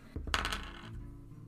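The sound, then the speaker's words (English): A quick cluster of hard clattering clicks as dice are rolled, tumbling and bouncing like on a table, fairly loud over a steady low hum, with no one speaking. “I'm gonna roll two more times. Okay, yeah, I'm rolling.”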